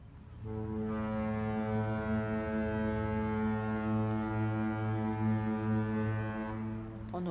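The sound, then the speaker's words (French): A ship's foghorn blows one long, steady, deep blast lasting several seconds, loud and sustained with rich low harmonics, then cuts off. “le son sans cent cornes de brume qui semblait venir de la rive.”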